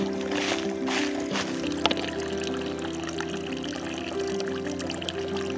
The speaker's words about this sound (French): Vous écoutez, il y a une petite source, une petite fontaine devant la maison.